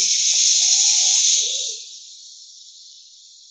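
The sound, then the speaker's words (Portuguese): Clear water pours from a raised jug over a person in a steady, hissing rush with a few faint gurgles early on, then eases off into a thinner, quieter stream toward the end. “E assim, a irmã mais velha pegou o jarro, levantou e”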